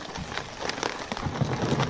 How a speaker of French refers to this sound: Donc le bruit que vous entendez là derrière moi, c'est bien le bruit d'un traîneau quand un renne avance. Donc comme ça, vous avez une petite idée de ce que ressent le Père Noël lors de sa tournée.